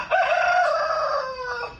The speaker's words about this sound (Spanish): Que batalla con, con estos gallos.